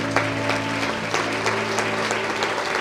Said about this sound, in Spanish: Denle un fuerte aplauso al Señor Jesucristo.